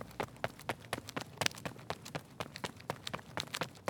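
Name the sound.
running footsteps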